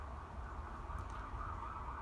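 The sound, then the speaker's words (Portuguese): A faint ambulance siren wails steadily over a low traffic rumble, its tone wavering slightly as it passes, with no one speaking. “ai, a ambulância tá passando.”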